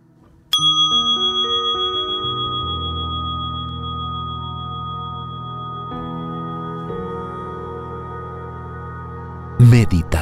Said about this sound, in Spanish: Vamos a finalizar entonces con el sonido de la campana.